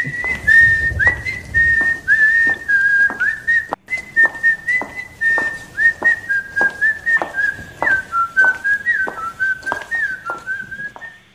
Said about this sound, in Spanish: Pues es verdad, hemos silbado y aparece ….